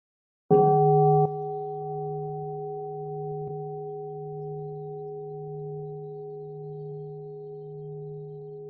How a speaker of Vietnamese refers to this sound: xin sư cô thỉnh một tiếng chuông để cho mọi người buông thư